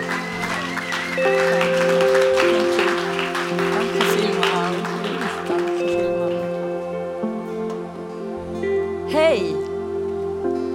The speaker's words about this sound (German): Lass uns ihr einen Applaus geben